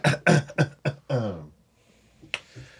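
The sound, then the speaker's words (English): Someone clears their throat in a quick run of short, voiced rasps, ending with a longer drawn-out one, followed by a sharp click and faint hiss. “Should clear my throat first.”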